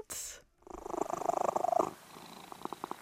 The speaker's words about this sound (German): legt sich dann auf den Boden und schnurrt. Und das finde ich total angenehm, weil es ist irgendwie so beruhigend.